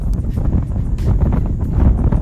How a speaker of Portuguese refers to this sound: O vento que sopra agora no meu rosto, talvez seja loucura de onde vem esse vento.